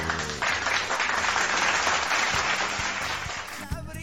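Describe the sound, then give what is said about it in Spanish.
An applause sound effect: a crowd claps steadily for about three seconds, the applause sounding faint and far off, then fades as a voice begins at the very end. “Oye, los aplausos hoy no quisieron sonar. No, lo que pasa es que se alejó el público. En la distancia, ¿verdad?”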